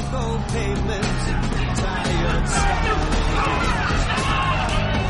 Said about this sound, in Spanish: Gente con caretas de payaso y bengalas grita con los brazos en alto.